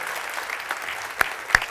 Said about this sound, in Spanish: Vamos a darle un aplauso a estos hombres. Pueden tomar asiento.